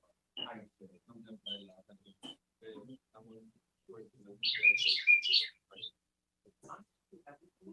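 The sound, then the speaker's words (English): A pet bird chirps loudly in a quick burst of bright, high tweets partway through, while people keep talking in low voices around it. “They have a bird, and he's very loud.”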